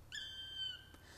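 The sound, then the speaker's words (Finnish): A single drawn-out, plaintive whistled call of a black woodpecker rings out clearly for under a second, followed by a brief faint knock, over quiet outdoor background. “Viikon luontoääni: Palokärki”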